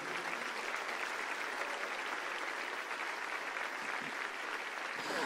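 An audience at a church service applauds steadily once more for people as they leave: a dense, continuous wash of clapping from many hands that holds at an even level throughout, with no voices standing out above it.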